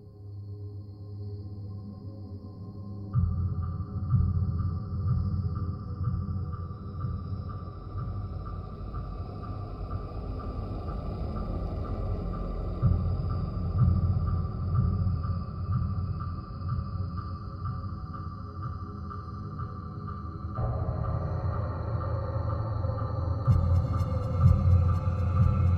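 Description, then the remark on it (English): A dark, droning ambient horror film score with layered sustained tones and a low rumbling bed, swelling in density a few seconds in and again near the end, with no voices. “he's about to lose his job in a song called ….”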